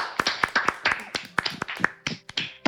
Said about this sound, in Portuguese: Palmas, Muito obrigado. Palmas. Muito obrigado.